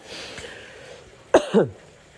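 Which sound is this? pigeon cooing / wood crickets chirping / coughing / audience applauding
coughing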